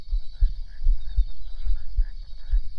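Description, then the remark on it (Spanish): A heavy heartbeat pounds in a steady rhythm, its deep double thumps repeating every half second or so, with a thin high-pitched hum running underneath throughout. “y nuestros corazones laten más fuerte.”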